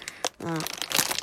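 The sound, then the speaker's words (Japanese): Crisp crinkling and crackling of a Taruyaki rice cracker (senbei) wrapper being torn open, in several quick bursts, with a brief vocal sound in the middle. “今バキバキバリバリ聞こえるでしょこれね、あのー樽焼きっていうせんべいを開けた音だ。”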